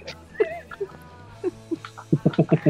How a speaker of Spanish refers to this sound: Gatos.